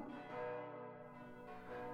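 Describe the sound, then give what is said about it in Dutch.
The bells of the Sint-Nicolaaskerk (St. Nicholas Church) ring out in a rich, sustained wash of overlapping metallic tones, with a fresh strike swelling in toward the end; no voices are heard. “In de vette hoorde hij de klokken van de Sint-Nicolaaskerk.”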